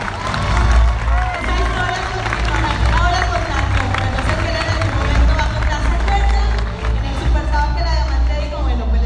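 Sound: audience applause and cheering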